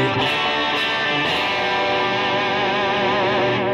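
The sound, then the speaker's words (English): An electric guitar played through a VegaTrem tremolo effect, ringing out sustained, heavily processed chords at a steady, fairly loud level with no one talking. “And I'm just doing the the VegaTrem.”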